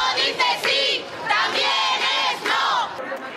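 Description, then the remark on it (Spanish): A large crowd in Spain shouts a loud protest chant in unison against a court sentence in the La Manada case, voices rising and falling in rhythmic bursts with brief dips between phrases. “Y volvemos a este momento porque aquel grito era contra una sentencia, pero el eco llegó a la política y retumba hasta nuestros días.”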